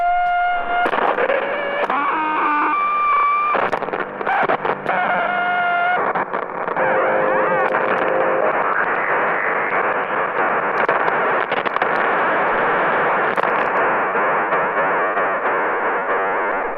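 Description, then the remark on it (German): A loud, continuous 27 MHz radio signal from a toy remote control transmitter sending the full-throttle-forward command, buzzing and warbling with distorted tones and static, shifting pitch early on before settling into a steady dense hiss-and-whine. “Das ist gerade das Signal für Vollgas voraus. Klingt vielleicht ein bisschen so, wie wenn dein Bruder äh, in ein Funkgerät pfeift.”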